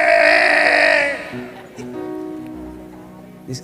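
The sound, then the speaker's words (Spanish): A loud, wavering sheep bleat fills the first second, followed by softer, lower bleating calls that linger in the background until the end. “El pastor se colocaba en la puerta y llamaba a las ovejas por su nombre.”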